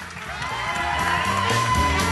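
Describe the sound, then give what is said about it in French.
An audience applauds and cheers in a steady, dense wash of clapping mixed with scattered whoops and shouts, holding at an even, fairly loud level throughout. “Donnez une bonne main d'applaudissement pour”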